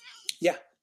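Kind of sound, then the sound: animal, cat meowing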